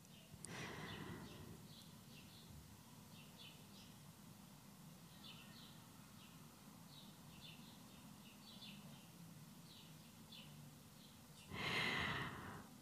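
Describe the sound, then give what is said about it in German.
Birds chirp softly outdoors, scattered short calls repeating throughout over a low ambient hum, with a louder breathy exhale near the start and again near the end. “Hörst vielleicht die Vögel, die du mich durch mein Mikrofon hörst.”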